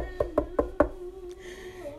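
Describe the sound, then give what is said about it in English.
Four firm knocks on the door of a home in quick, even succession, loud, followed by quiet with a faint steady hum. “I'm like, is somebody at our door?”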